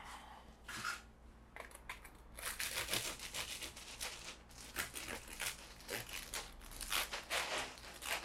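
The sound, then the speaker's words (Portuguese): Crunchy crackling as a knife or cutter saws through the crisp crust of a Roman-style pizza, in irregular bursts of scraping and snapping that grow louder toward the end, with no talking. “Vou cortar ela.”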